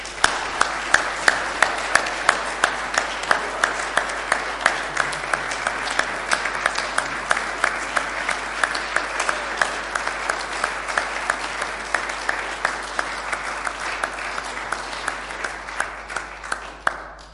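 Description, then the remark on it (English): Sustained audience applause for a community choir at a church carol service, a dense wash of many hands clapping steadily for over fifteen seconds before tapering off at the end, with no voices on top. “Let's give them a big, big round of applause.”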